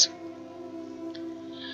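A low, steady owl hoot holds for nearly two seconds, smooth and tonal, heard alone at moderate volume after a brief click at the start, with no talking.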